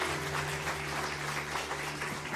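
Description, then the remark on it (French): An audience applauds a pastor's message in a dense, steady wash of clapping that holds an even loudness throughout, with a low sustained hum running beneath it and no voices. “Merci pour ces applaudissements.”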